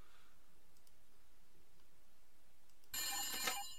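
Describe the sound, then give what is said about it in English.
A loud telephone bell rings in a single short burst of about a second, its bright metallic jangle breaking in suddenly after near silence. No one speaks. “we'll have Professor Farnsworth, you know, dust off that phone, but let's make that phone call”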